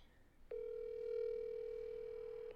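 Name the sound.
telephone ringing tone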